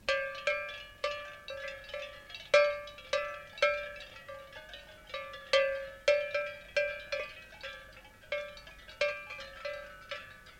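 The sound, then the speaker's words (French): Tuned cowbells, one lower and one higher, tuned by ear, ring in an irregular stream of clanging strikes, each note decaying briefly before the next. No voices are heard. “a une qui le son plus bas, l'autre plus haut. Elles sont accordées à mon oreille.”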